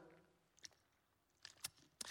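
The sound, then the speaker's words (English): Someone quietly sips water, with a few brief, soft slurping and swallowing sounds spaced out over a couple of seconds, and no talking. “And let me just tell you this I just want to take a sip of water”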